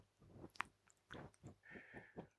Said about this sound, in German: falls ihr euch jetzt gerade wundert, warum da irgendwas raschelt, äh, Maggie steckt ihre Nase ins Mikro